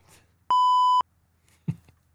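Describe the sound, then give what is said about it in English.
A single loud electronic beep, a steady pure tone lasting about half a second with abrupt start and stop, stands alone against near silence, followed by a brief soft thump. “next one, how easy it is to actually do your little beep thing.”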